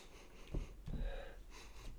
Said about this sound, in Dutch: ik, zit, ik zit aan mijn bier te ruiken, ja. Dat eh, moet ook gebeuren. Kortstondige snuifjes.